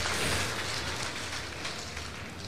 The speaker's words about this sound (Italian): Questo l'applauso per sarda. l'artista sarda e 662 i mi piace su Facebook.